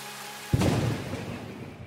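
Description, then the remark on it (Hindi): A sudden deep boom of thunder breaks in after a quiet moment, then rolls on with a broad, rushing rumble like heavy rain, fairly loud and with no voices. “दो लोग जिनकी जिंदगी की शुरुआत बारिश से हुई थी आज उन्हीं की जिंदगी के नए सफर में ये बारिश एक बार फिर से साथ दे रही थी”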